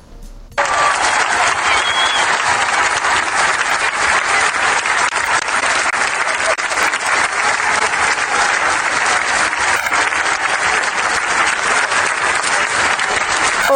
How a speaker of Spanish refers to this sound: ¿quieres escuchar cómo, cómo suenan cinco mil covidiotas aplaudiendo? A ver, bien. Ahí va.